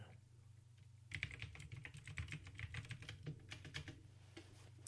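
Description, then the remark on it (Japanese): Rapid, steady computer keyboard typing, fairly loud, with a quick clatter of keystrokes running for several seconds over a low constant hum, as someone searches online for the film Fast Food Nation. No one speaks. “カタカタカタってね、うるさいですね、キーボードの音が。”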